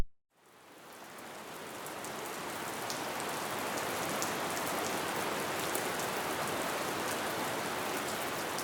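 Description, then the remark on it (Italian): Heavy rain pours down steadily, a dense, even hiss with scattered sharper drops pattering on a hard surface. It swells in quickly and then holds at a constant, fairly loud level, with no voices. “Dopo tanti giorni di pioggia, le fogne si sono allagate.”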